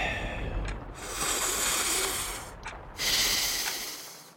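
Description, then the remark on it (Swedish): Two long, deep breaths, each a slow airy inhale rising into a full exhale, fairly loud with no talking over them. “Andas djupt.”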